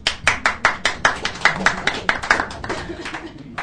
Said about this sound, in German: Ja. Applaus, Applaus!